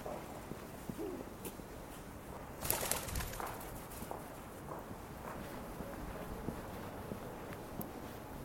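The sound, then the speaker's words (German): A brown-and-white pigeon coos softly a few times on Vienna's largest shopping street, nearly silent with few people about, with light wind noise, occasional footsteps and a brief louder rustle in the background. “Ein paar Radfahrer, Jogger, eine braunweiße Taube.”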